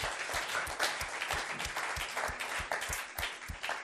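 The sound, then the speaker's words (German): An audience applauds steadily, a dense wash of many hands clapping at once, with a few sharper individual claps standing out in a loose rhythm throughout. “Ja, gebt Applaus. Gebt Applaus.”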